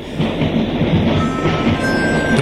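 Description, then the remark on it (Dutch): A blues piece: steady, loud rumbling train clatter gives a rhythmic chugging beat, with a thin, high harmonica tone drifting over it in the second half; no voices. “Maar heel graag met die, eh, met die geluiden van de treiners. Toen, ja. Dat geeft dan het ritme aan. En dan de mondharmonica eroverheen.”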